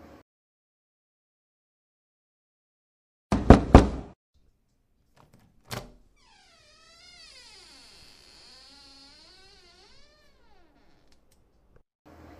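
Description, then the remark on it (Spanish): Three quick, loud knocks as a woman knocks on the door of the house across the street, then a softer single thump, followed by a long, wavering, cat-like meowing cry that trails off into quiet. “La madre decidió llevarle un postre de bienvenida y al llegar a la puerta, ella toca”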